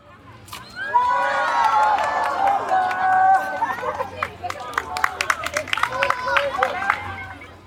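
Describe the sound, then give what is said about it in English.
A large rodeo crowd cheers loudly, a swell of overlapping shouts and whoops, then breaks into scattered applause and continued hollering for the last few seconds. “With a cheer from the crowd and a peal of thunder, the rodeo now began.”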